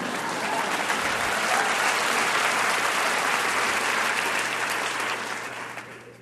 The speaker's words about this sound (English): A male vertebrate is not in charge this unnamed movement. You can clap for that.